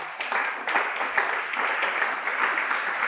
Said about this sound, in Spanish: ¿Está acá conmigo? ¿Por qué no le da fuerte el aplauso al Señor?